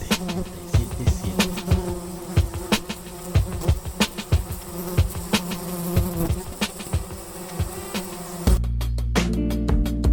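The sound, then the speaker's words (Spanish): A fly buzzes steadily for about ten seconds in a jingle for La Mosca Radio FM 87.7, punctuated by sharp percussive clicks, before shifting into a denser, lower drone near the end. No one speaks. “Revoloteando en el aire.”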